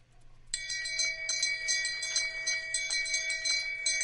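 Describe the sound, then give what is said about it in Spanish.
A novelty Game of Thrones 'shame' bell gadget starts ringing after a brief pause and keeps clanging steadily with a bright, metallic tone, loud, with no talking. “Es decir, puede estar, es, puede estar horas haciendo esto, es, una campana del shame, porque no sé cómo la traducieron en español al final, para Juego de Tronos, en fin.”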